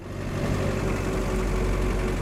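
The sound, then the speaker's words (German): A red tractor's engine chugs steadily as it drives along a forest track in the wildlife park at Karlsbrunn, pulling a trailer loaded with hay and crates of lettuce. A low, rumbling mechanical drone with a constant vibrating throb and no talking over it. “tuckert am Steuer eines roten Traktors über den Waldweg.”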